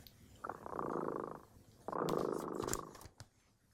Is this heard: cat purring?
yes